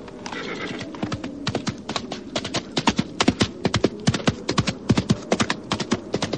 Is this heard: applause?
no